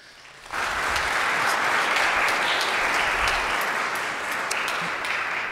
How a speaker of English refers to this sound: it's only fair for us to be able to applaud